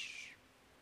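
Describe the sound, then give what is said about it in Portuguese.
A single short, high-pitched bird call sounds briefly in the background, then fades out, leaving faint ambient hiss. No one speaks. “Deixa o pássaro aí.”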